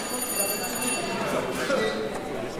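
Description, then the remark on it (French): A continuous theatre-style electric bell rings steadily for a few seconds at a cinema, signalling that a film screening is about to begin: a bright metallic trill carrying over the murmur of a crowd talking. “Alors, on entend la sonnerie comme au théâtre. Je crois que ça veut dire que la projection va commencer.”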